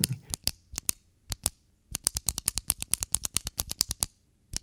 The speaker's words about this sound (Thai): What's that noise What are you doing Stop clicking the pen That's the sound of pen clicking